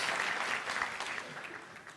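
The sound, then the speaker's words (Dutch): A burst of audience clapping, many hands at once, steady before gradually thinning out toward the end. “Oh, applaus.”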